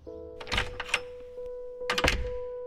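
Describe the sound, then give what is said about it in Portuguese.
A door bangs shut with a couple of solid thumps and some rattling as someone leaves, separated by a short pause, over a steady low electrical hum. No one speaks. “E saiu porta fora.”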